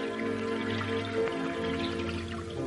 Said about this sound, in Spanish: Pensaba en esa fuente que corre día y noche, sin que nadie le acerque sus labios.